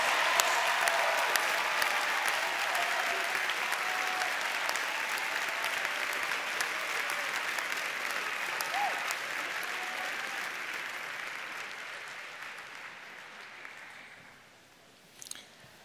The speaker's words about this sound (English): So, seniors, if you're in the house, would you stand up and let us give you a round of applause for all that you've been through?